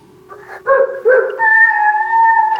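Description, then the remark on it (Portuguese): Dogs bark in two quick yelps, then break into a long, steady whining howl, fairly loud with no one talking. “Eu tô ouvindo até uns cachorros aqui, peraí, o negócio tá meio doido hoje.”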